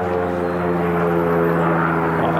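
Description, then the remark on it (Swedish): A propeller airplane drones loudly and steadily overhead, its low engine hum holding strong tones throughout with a slight swell toward the end. “Ja, då kommer något flygplan och kör här rakt över mig.”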